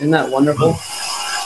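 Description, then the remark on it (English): A brief spoken question gives way to a steady, hissy scraping and grinding of tile being put down in a newly bought home, moderately loud and continuous for the rest of the moment. “this is actually probably one of the few forums where it's acceptable to have construction related noise in the background”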